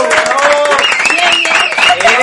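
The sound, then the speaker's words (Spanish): Steady, dense applause from a group, loud and continuous for the whole moment, with excited voices whooping and cheering over the clapping. “Así que a todo el equipo, por favor, aplauso.”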